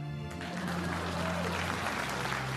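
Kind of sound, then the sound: crowd, audience applause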